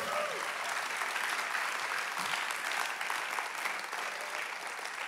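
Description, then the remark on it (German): An audience claps steadily for about five seconds, a dense, even wash of many hands with no pauses, holding at a fairly constant level throughout. “Dann lass uns Applaus geben”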